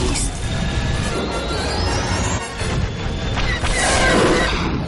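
An X-wing starfighter crashes and explodes during an attack in a trench under cannon fire, a loud, sustained roar of rumbling noise with whining engine tones, swelling into a heavier blast near the end. No one speaks.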